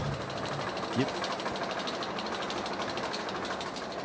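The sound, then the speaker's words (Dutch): A steady, rapid mechanical clatter of a roller coaster lift hill chain, heard while walking past the lift hill on a very crowded day at the park, ticking in an even rhythm and carrying on throughout, with a busy background hum and faint voices around it. “Dat blijft een heerlijk geluid, hè? Het geratel van een lifthill.”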